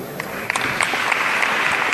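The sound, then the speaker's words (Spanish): The brothers of the Hermandad de la Redención, gathered at El Salvador, applaud the words of their hermano mayor as their penitential station ends: a dense wash of many clapping hands with sharper individual claps popping out now and then, sustained and fairly loud throughout. “Pues ahora aplauden todos los hermanos que se congregan aquí en El Salvador, las palabras del hermano mayor, que como decimos ha lamentado este último episodio que se ha vivido una vez salido de la catedral, dando así por finalizada la estación”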